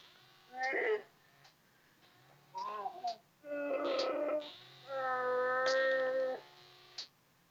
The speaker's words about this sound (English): And now he's asleep. The animatronic motorized sounds are always a little bit creepy. That was a yawn. He snores too. It's super adorable.